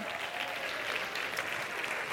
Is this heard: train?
no